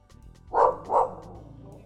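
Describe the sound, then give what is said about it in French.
A dog named Quito lets out two quick, loud barks, one right after the other, then falls quiet against a low background hum. “Et le chien voulait répondre.”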